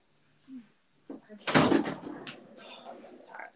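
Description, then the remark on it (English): A few light knocks on a door, then a louder thud or bang as the door is struck, followed by muffled rustling and indistinct voices. “You better knock gently on the door.”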